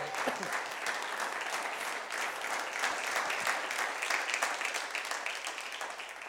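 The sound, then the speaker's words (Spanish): An audience at a Bible teaching bursts into sustained applause before the teaching starts, many hands clapping in a dense, steady patter that holds at an even loudness for several seconds with no talking over it. “Si usted lo cree, denle un aplauso y vamos a arrancar con todo.”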